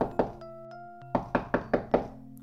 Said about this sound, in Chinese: 进来。敲门的正是他的妻子，女巫霍库斯。